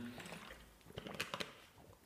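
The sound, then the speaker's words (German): A person takes a quick sip of water, with soft slurping and a couple of small gulps over a quiet background, followed by a faint breath. “Ich nehme jetzt nur kurz einen Schluck Wasser.”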